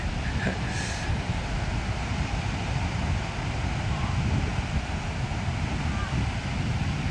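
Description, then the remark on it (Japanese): Ocean waves wash onto a beach around 1 p.m. in a steady, loud roar, heavily mixed with strong, gusty wind rumbling against the microphone; no voices, just continuous surf and wind noise. “波の音がいい感じですそうですかありがとうございますちょっとね BGM で聞いてください”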